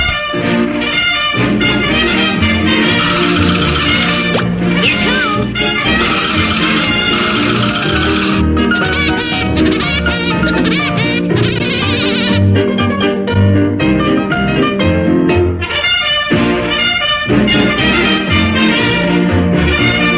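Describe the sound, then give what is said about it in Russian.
Woody Woodpecker's signature laugh plays as a mobile phone ringtone, loud and busy, bright and harmonic with a bouncy musical backing, running continuously for about twenty seconds with brief dips and no talking. “Второе место мобильного чарта сегодня занимает дятел Вуди и его смех.”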